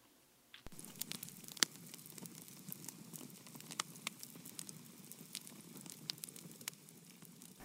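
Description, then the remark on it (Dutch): A campfire in the middle of the desert crackles, with irregular sharp pops and snaps over a steady low rustle of burning wood, no voices present. “Ik zit hier bij een kampvuur midden in de woestijn en ik wil voor jullie een lied zingen dat gaat ook over de woestijn.”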